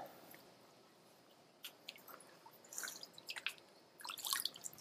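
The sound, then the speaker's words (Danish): A flatfish, a dab, flaps and splashes in a tub of water, giving short, irregular wet slaps and drips in scattered bursts that come closer together near the end. Fairly quiet, with no talking. “Denne her flade fisk, som plasker rundt i, i baljen, den hedder en ising.”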